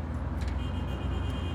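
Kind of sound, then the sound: vehicle, car passing by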